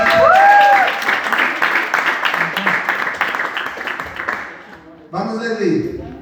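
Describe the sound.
An audience applauds loudly for about four seconds, a dense burst of clapping with a whoop early on, then it fades as a voice starts talking.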